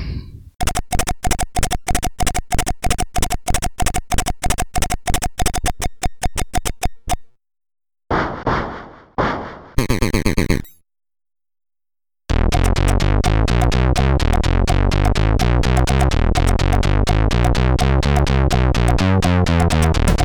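A horse sound chip-synthesized on a Commodore 64, programmed as a 16-bit instrument with timings and instrument changes: a long run of sharp, rapid electronic hoofbeat clicks, a few harsh noisy bursts, then a loud, dense, buzzing synth tone to the end, with no talking.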